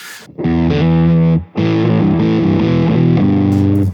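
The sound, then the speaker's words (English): A guitar played through a soft, mild, low-gain fuzz pedal called Pillow: thick sustained chords with a warm, rounded grit and little definition, a brief break partway, then more ringing chord changes, with no voices. “Like I said, when I run a fuzz, I like it to be really pillowy.”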